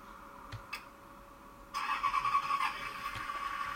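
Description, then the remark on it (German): Two faint clicks, then an old bus's engine, a vintage vehicle, abruptly starts up and runs with a rough, uneven chugging that stays loud until the end. “Motor an.”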